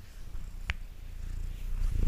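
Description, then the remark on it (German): A cat purrs, a steady low rumble rising and falling with its breathing, accompanied by a brief soft click partway through. No one speaks. “Schnurrt auch gerade.”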